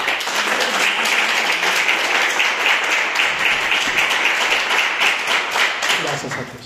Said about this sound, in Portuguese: Amém? Pode aplaudir Jesus?